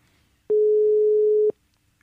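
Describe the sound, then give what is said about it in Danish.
A single steady telephone ringing tone sounds for about one second as a call is being placed, clean and fairly loud, with near-silence before and after it and no voices. “allerførst så synes jeg, at vi skal prøve at ringe til, til Bjørli”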